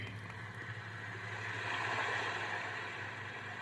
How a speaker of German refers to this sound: Ja, das Meeresrauschen, das müsstet ihr eigentlich recht gut hören. Und das sind dann so unterschiedliche. Ihr könnt dann mal ein härteres Rauschen machen, also, also ein kräftigeres oder so wie hier, so irgendwo am Ufer dann.